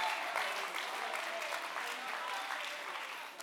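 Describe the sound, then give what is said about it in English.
A church audience claps their hands in praise of God in a steady, dense wash of applause that holds at an even loudness for about three seconds before easing slightly at the end. “Come on, while you got your hands clapped, use your words Say, God, they fall short, but I praise you with my words.”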